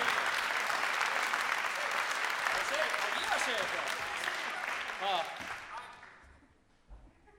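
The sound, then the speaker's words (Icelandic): Sustained audience applause, a dense wash of many hands clapping that stays loud for several seconds, with a few scattered voices mixed in, before thinning out and fading near the end. “Já, klappiði fyrir þeim á minna”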